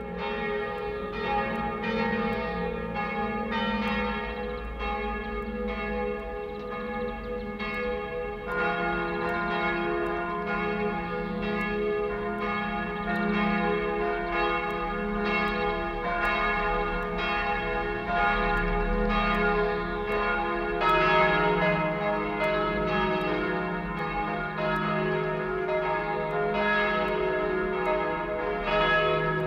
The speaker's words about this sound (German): wie aus unbekannten Tiefen der Zeiten, über Räume und Schicksale hinweg, klingen die Glocken des Salzburger Doms.